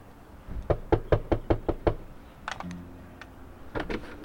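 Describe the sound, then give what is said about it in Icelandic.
A quick, evenly paced run of about seven sharp knocks on a door at a coffee chat at Eyrin in Akureyri, fairly loud, followed by a few softer clicks and a faint low hum. “Varstu hún að koma inn að banka á?”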